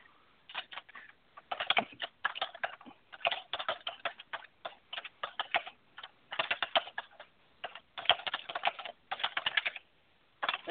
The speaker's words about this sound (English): She's over here just typing away. Loudly.